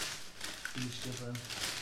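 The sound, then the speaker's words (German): A paper Burger King fast-food bag crinkles and rustles continuously and fairly loud, while a voice briefly murmurs over the crackling partway through. “Das Rascheln ist das andere Rascheln auf Ehre nur für euch.”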